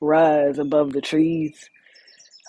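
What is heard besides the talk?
birds singing outdoors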